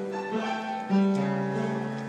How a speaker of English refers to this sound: It's a what you're hearing is a player piano.